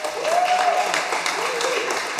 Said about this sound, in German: Einmal Applaus bitte das Publikum, ihr müsst auch ein bisschen wach werden wieder. Ihr seid im Fresskoma und es ist spät. Ne? Also jetzt können wir nochmal applaudieren.